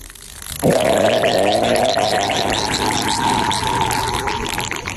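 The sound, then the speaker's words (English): A loud fart-like noise made by a man's penis starts abruptly after a brief quiet moment and keeps up as a steady, buzzing, gargly rasp for about four and a half seconds, with no talking over it. “You're gonna scare the dog with the uh, the dick fart noise.”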